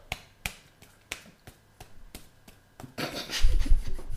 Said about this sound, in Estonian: sul lülitad kahe näpp, äh, kahel käel võtad kaks näppu ja üritad nendega plaksutada.